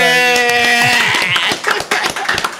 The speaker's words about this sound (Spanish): Sexto piso en la casa. Un aplauso.